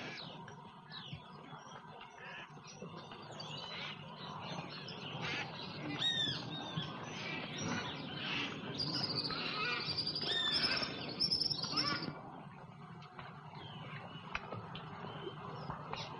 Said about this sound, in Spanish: no encontramos más que bellísimos pájaros, piedras preciosas voladoras, y donde la música que dominaba aquel cuadro era la llamada de los guacamayos, eran los gritos de los loros, era la voz incesante, eterna y monótona de la selva.